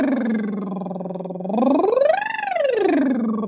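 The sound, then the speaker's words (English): A buzzing lip trill holds a low pitch, then swoops up high and glides back down in one continuous breath, with no talking. “So you take that lip trill and you go.”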